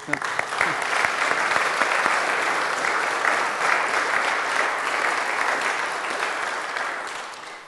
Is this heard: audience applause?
yes